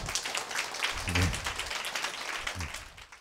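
An audience applauds steadily, a dense crackle of many hands clapping throughout, with a couple of brief voices briefly surfacing beneath the clapping.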